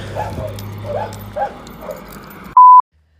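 A dog whimpers softly in several short, high whines spaced across a few seconds, over a low background hum, followed by a brief electronic beep at the end.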